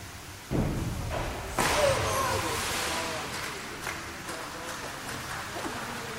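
A loud flat slap of a girl diver's back hitting the water after a dive from the board, followed moments later by a second heavy smack, then a long wash of spraying, churning water and splashing that slowly settles.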